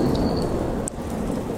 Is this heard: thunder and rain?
yes